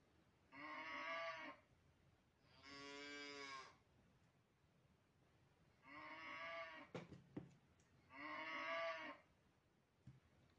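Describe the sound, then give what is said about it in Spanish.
A cow standing by a fence, blocking the path, moos four times, each call a long, full, resonant low bellow of about a second, with short pauses between them and a few faint clicks in the background. “Junto a la valla, cortándoles el paso, había una vaca que no parecía tener intención de moverse.”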